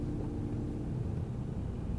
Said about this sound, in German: Wir sitzen gerade im Auto auf dem Weg zu Ding Dao